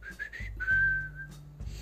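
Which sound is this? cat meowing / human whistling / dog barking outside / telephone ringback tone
human whistling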